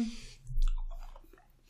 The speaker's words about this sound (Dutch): Ik ga chocola breken, dat maakt geluid. Oké, doe je dat. Hier, eet chocola.